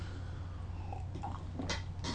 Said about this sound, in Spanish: Después de este primer sorbito